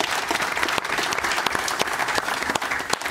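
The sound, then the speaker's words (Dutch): Steady studio audience applause for a contestant who lost but is provisionally in fifth place, dense overlapping clapping at a constant loud level with no voices rising above it. “Hij is eh, voorlopig vijfde, dus geef hem toch maar een applaus.”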